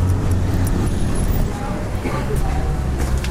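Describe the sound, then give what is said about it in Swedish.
Steady roadway rumble of idling and passing engines at a busy bus station at night, a constant low drone with faint murmuring voices mixed into the background. “Ja, här har vi en busstation som heter duga.”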